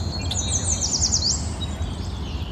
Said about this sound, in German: Ah, der beruhigende Klang von Vogelzwitschern.